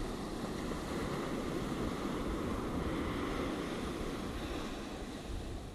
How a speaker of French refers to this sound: Plus d'angoisse, plus de crainte, tout va bien laisse ces vagues encore emporter tout ce qu'il reste, jusqu'au dernier. Laisse ces vagues te libérer, te nettoyer en profondeur.